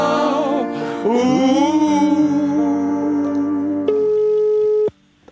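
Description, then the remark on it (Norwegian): A telephone ringing tone sounds while a call to a mother is being placed, a steady electronic pitch that holds for about a second after a busier tonal passage, then cuts off abruptly into near silence. “Men nå skal vi ringe til mor på Andi”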